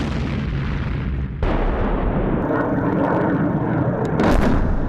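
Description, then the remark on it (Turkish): Heavy, sustained rumbling blasts of artillery fire striking Armenian military positions, in footage shared by Azerbaijan's Defense Ministry, with a sharp explosive impact near the middle and another burst near the end, loud amid continuous low roaring. “Azerbaycan Savunma Bakanlığı Ermenistan'a ait mevzilerin vurulma anını da paylaştı.”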